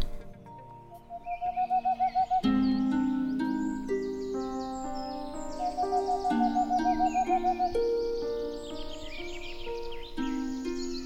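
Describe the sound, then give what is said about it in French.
Tengmalm's owl hooting in rapid, even trills of soft, low hoots, two bursts a few seconds apart, heard over sustained melodic tones that carry on throughout. “Pendant environ 20 ans, j'ai recensé ces petites chouettes de Tengmalm qui nichaient donc dans ces loges.”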